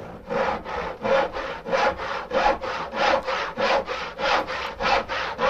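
A handsaw cuts through wood in steady, rhythmic strokes, about twelve rasping back-and-forth pulls with a bright, gritty texture, fairly loud and with no voices.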